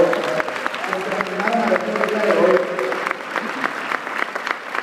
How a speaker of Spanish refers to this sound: Un aplauso para los invitados, por favor.